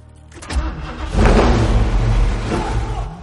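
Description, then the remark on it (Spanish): The engine of a grey 1969 Ford Mustang, parked among tarp-covered cars and started with keys put in the ignition, cranks briefly, catches with a sharp burst, then roars into a loud, sustained rev that rumbles and slowly eases, with no voices. “Coge unas llaves ocultas en el parasol y las mete en el contacto.”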